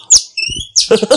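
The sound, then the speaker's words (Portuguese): A voice at a zoo imitates a woodpecker call: a shrill squawk, a brief whistled tone, then two more choppy, chattering bursts, loud, with no other talk. “Ei, pica-pau, fala de novo.”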